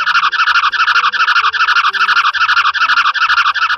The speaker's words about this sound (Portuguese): Sim, Mestre Fernando, esse é o som feito pela formiga. Oh. Nossa, doutor Mirinha, que coisa! Eu não sabia que as formigas faziam som. Esse tipo de som é chamado de estridulação.